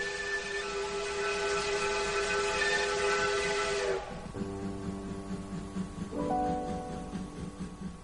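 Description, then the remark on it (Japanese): A steam train whistle blows loudly over a broad hiss of steam as the train moves away from a river to run along the top of a cliff, its chord dropping to a lower, softer tone midway and then shifting again as the steam keeps rushing underneath. “その時、汽車はだんだん川から離れて崖の上を通るようになりました。”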